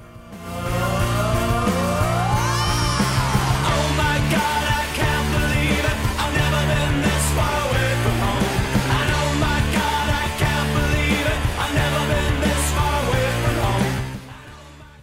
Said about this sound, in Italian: Questa è la sigla, questo è il nostro momento di totale assurdità e la sigla di I Can't Believe This Is Happening fa più o meno così.